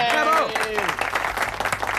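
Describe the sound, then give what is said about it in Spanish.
A crowd breaks into sustained applause for the campanu, a dense wash of many hands clapping at once, with a brief high vocal cheer rising over it at the start. “Un aplauso para el campanu.”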